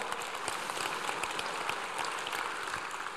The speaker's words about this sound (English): The second part, you can clap. It'd be a good place to clap.